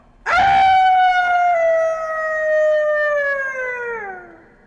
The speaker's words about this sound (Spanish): En ese momento, en alguna granja lejana empezó a aullar un perro.